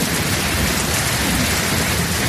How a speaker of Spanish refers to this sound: Que que está lloviendo donde yo estoy, que no para de llover.